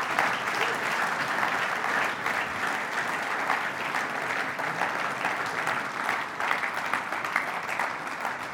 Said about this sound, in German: Vielleicht können wir den Pensionierten noch mal einen Applaus geben. Hey, ist wirklich so.